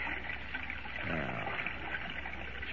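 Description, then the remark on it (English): Steady sloshing and swishing of water as someone wades ashore through the shallows, continuous for a few seconds with no voices. “Now I can wade ashore and revive Lois and Jimmy.”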